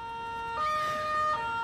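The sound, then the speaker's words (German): A police siren in Torre Canne, Italy, on the morning of 23 October sounds in steady, held tones, stepping up to a higher pitch partway through and then dropping back, with no voices over it. “Am Morgen des 23. Oktober wurde ich durch Polizeisirenen geweckt.”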